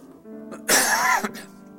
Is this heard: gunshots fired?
no